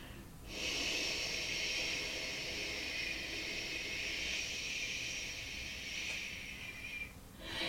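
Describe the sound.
A single long, steady breathy whoosh, made by a person blowing to imitate the wind, sustained for about six seconds with no talking.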